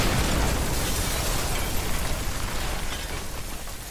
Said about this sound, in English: With a massive explosion in the sky, and to Tracta's surprise, the shuttle explodes